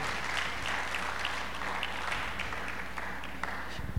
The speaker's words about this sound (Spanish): ¿Alguien puede aplaudir? ¿Alguien puede chiflar? ¿Hacer ruido? ¿Algo?